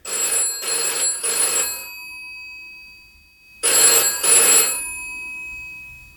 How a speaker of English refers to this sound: Apologies, that's actually the phone ringing in the office. Um, I've now got to wait for somebody in the house to answer it. Hang on. There we go.